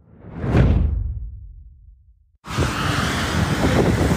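A loud gust of wind swells and fades, then after a brief lull a steady, blustery roar of wind and rain buffets, recorded while walking in the rain in Greenock. No one speaks.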